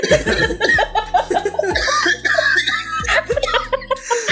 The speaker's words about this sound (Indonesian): Ya, ini pura-pura batuk lagi aja